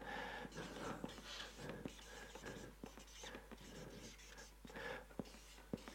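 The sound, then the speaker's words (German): A pen scratches across a surface in irregular bursts of strokes, with soft taps and pauses between words, fairly quiet against a faint steady hum. “So, der Stift schreibt noch.”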